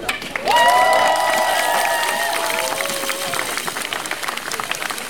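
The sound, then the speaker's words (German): A crowd at a strike rally breaks into sustained applause for striking colleagues, with scattered cheers and whistles, dense clapping rising sharply at the start and holding steady, with a few high whoops standing out over the noise. “Und deswegen nochmal extra Applaus für die Kolleginnen, die trotz dieser Schulleitung heute hier da sind.”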